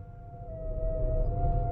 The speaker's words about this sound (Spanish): Oía llorar giratorias sirenas y mientras oía, huía de aquel monorítmico llanto. Y mientras huía, oía crecer y crecer un sonido de muerte huía de aquel infernal movimiento y oía pasar la ambulancia.